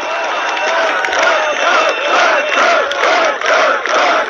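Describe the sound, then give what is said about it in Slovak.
A large crowd shouts and chants together at a protest on a square, with Ivan Korčok among the crowd, a dense, loud roar of many voices rising and falling in a steady, repeating rhythm without pause. “A tu je samozrejme v dave pán Korčok.”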